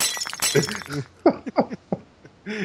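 Glass shatters with a loud crash, followed by a scattered series of sharp clinks and tinkles as shards fall and settle over a couple of seconds.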